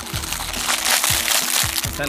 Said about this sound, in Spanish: Si ah, escuchan ruidos raros en este momento es que no la pasamos comiendo aún.